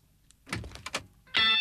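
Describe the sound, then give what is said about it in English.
A car door unlatches with a few mechanical clunks and rattles, then a loud, steady electronic chime starts ringing as the door hangs open. “All right, open up the car door.”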